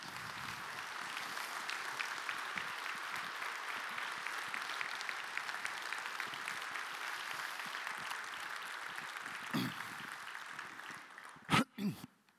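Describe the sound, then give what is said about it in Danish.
Sustained applause from a large audience at a Danish party conference, a dense steady patter of many hands clapping throughout, with a few louder thumps near the end as it dies down. “Jeg skal have vand, så I må gerne klap.”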